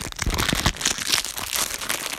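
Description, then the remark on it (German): Steady crinkling of a plastic trading card pack wrapper being opened, with dense irregular crackles over about two seconds and no voices. “Ich öffne direkt. Warte, ich bin jetzt. Oh, ich mag das immer. Wenn, oh, guck mal, das, die, dieses Knistern, Leute.”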